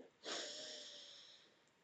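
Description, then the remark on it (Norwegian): A single long, deep breath drawn in through the nose by a person settled into an armchair, clear, with a hissy airy rush that starts abruptly and slowly fades over about a second and a half. “Så da setter jeg meg godt til rette borti godstolen min, og så puster jeg godt inn.”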